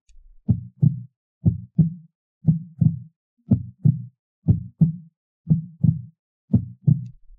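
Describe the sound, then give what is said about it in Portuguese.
A steady heartbeat thumps alone in low, muffled pairs, lub-dub repeating about once per second with even rhythm, clear with silence between beats. “Pense no seu coração.”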